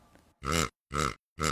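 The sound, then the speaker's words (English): Three loud, short piglet grunts in an even rhythm, each a rough, buzzy snort with brief silences between, following a faint low rumble at the start. “Piglet，小猪。”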